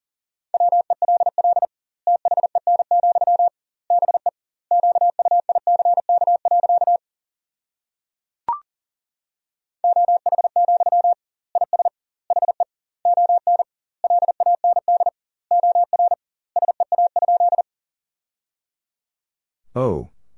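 Rapid Morse code beeps at 40 words per minute with double word spacing, at a steady mid-high pitch, sending a sentence made from the top 500 words in quick bursts of dots and dashes separated by gaps, with a brief click midway and a short sweep at the end.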